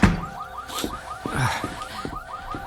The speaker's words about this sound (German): Äh, das ist die Alarmsirene eines Autos. Wie jetzt? Mitten in der Nacht? In der Einöde?